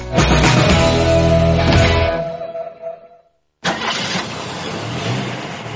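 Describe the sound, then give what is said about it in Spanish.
A car engine starts up loudly and roars for about two seconds before dying away; after a brief silence, another loud burst of mechanical noise begins and continues. “Coche.”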